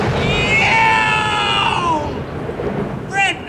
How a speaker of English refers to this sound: I've been hit by lightning.